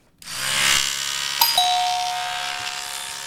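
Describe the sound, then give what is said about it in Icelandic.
A Ramax electric toothbrush switches on abruptly and hums steadily, a bright buzzing whine with a brief pitch wobble partway through, running alone without any voices. “Tannbusti? Já, akkurat. Þetta var, var það Ramax tannbustin.”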